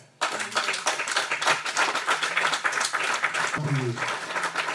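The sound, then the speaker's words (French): An audience at a Christian church service bursts into sustained applause and cheering to acclaim God, dense clapping with scattered voices shouting over it before settling. “Alors acclame ton Dieu.”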